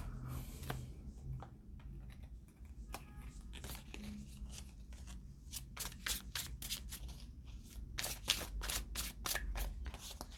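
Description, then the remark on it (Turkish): Tarot cards being shuffled and drawn during a tarot reading, a crisp run of rapid papery flicks that grows denser and louder toward the end, over a low steady background hum. “Şuraya şundan bir tane daha çekeceğim üstüne.”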